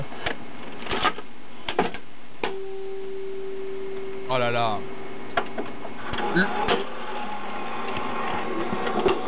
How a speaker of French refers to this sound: Ah, le bruit d'une VHS qui se rembobine, bien sûr. C'est de la SMR pour milléniaux.